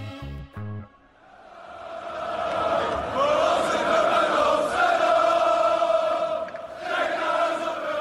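Ajax football supporters celebrate in a stadium after an away win in the Champions League knockout phase, a dense crowd roar swelling into sustained singing and cheering that stays loud throughout, after a few brief low thumps at the start.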